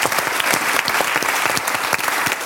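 Steady applause from an audience, a dense crackle of many hands clapping at once, evenly loud throughout, with no voices standing out.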